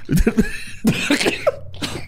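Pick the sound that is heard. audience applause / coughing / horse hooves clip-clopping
coughing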